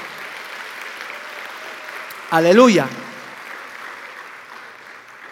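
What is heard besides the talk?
audience applauding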